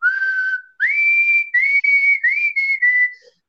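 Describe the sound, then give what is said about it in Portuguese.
Someone whistles a short guitar-riff idea, recorded as an audio message for a band's WhatsApp group while passing through on the way to Cidade Baixa, clear and fairly loud: a held note, a rising slide, then several quick choppy phrases that step gently downward. No talking. “Me surgiu um, uma, um riffzinho de guitarra, uma ideia. E aí eu assobiei.”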